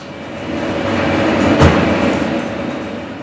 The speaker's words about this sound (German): In der kleinen Bachstube ist es ziemlich lärmig. Die Lüftung blaset aus allen Rohren.